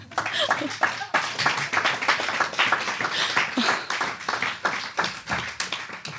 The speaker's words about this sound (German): Ähm, ich noch ein bisschen weiter klatschen.